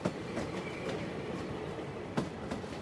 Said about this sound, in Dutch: 2 juni 2021, om 9 uur in de ochtend, zit ik in de trein naar Den Haag.